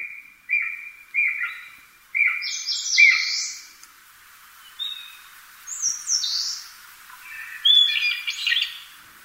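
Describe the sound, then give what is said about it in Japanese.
A Japanese green woodpecker, a pigeon-sized brownish-green bird with a red patch on its head, calls in a series of short, whistled notes, first repeated in an even rhythm, then rising into higher, sharper calls, with no voices. “そして特有の鳴き声から止まっている姿を見ることができます。”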